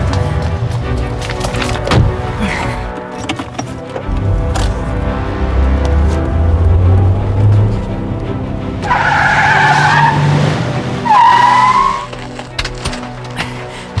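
A car engine revs up as tires squeal and skid loudly, with sharp screeching bursts rising near the end as the car pulls away fast. No one speaks.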